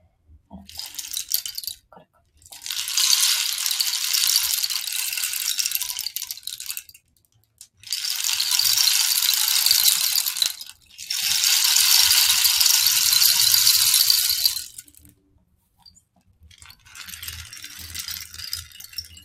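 A rain stick (palo de lluvia) tilted back and forth, its beads pouring in long hissing cascades of several seconds each, separated by brief pauses, fairly loud with no talking.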